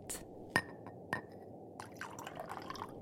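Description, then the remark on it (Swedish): Cold milk pours into a glass, opening with a couple of sharp clinks followed by a soft, steady gurgle of liquid filling the container, with no talking. “Men Sten och Flisa smög upp ur sina sängar för de hade båda blivit sugna på ett glas kall mjölk och en varsin lussekatt”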